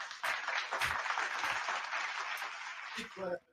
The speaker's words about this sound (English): Britney's uh his dad her dad round of applause for Britney, y'all.